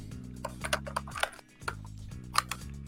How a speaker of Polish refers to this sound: Tak, tak, tak. Klikam właśnie szukając, że tak powiem, e, e, swoich właśnie kupek e, listek listek, list wstydu.